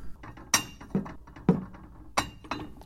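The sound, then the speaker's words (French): Plates at home clink against each other five times in quick, uneven succession, bright ceramic knocks with short ringing tails and no voices. “la table, la chaise, les assiettes”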